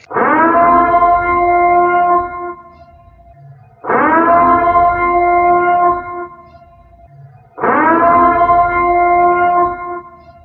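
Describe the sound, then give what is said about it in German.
A loud civil defense siren, the Purge siren, wails three times, each blast swelling up quickly, holding a steady howling tone for a few seconds, then dropping away before the next begins. “Nein, die Purge-Sirene haben wir tatsächlich nur aus gegebenem Anlass ähm, eingespielt.”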